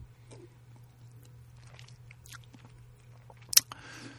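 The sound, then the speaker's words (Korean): Wet lip smacking, a few soft mouth clicks building to one sharper smack near the end, then a brief breathy rustle, over a low steady hum with no talking. “아, 제가 입맛 다시는 소리.”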